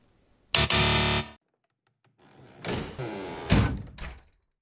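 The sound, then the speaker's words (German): Doors slamming: a harsh, sustained burst of noise, a brief pause, then rattling and clattering that builds into two loud bangs before fading out. No voices. “knallende Türen, da hat man natürlich eine Assoziation, dass nicht mehr miteinander gesprochen wird.”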